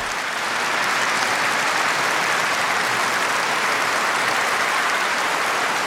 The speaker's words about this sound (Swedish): Now I have the pleasure to invite the Nobel Peace Prize laureate of 1991. Då var hon ju fortfarande västvärldens älskling och applåderna ville aldrig ta slut när hon ställde sig i talarstolen.